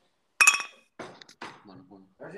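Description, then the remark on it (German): Two drink bottles, one a non-alcoholic Bitburger Radler, knock together once in a toast, a bright clink that rings briefly before fading. Voices start talking right after. “Ich stoße jetzt gerade hier mit … an.”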